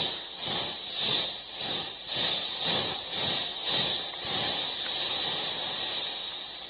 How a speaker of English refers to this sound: Then comes a terrible moment. The train stops. First, she goes back.